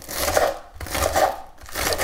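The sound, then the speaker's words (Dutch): A knife saws through a crusty toasted bread roll, rubbed with garlic, cutting it into pieces for a panzanella in three steady, crunchy strokes. Each is a loud rasping scrape with brief pauses between, and no voices. “Nou, daarna snij ik ook dat broodje”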